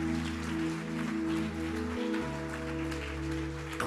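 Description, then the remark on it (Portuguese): An audience applauds the Lord in a steady, dense wash of clapping that lasts about four seconds, with sustained low keyboard chords holding underneath and no voices. “Você pode aplaudir ao Senhor, meu irmão?”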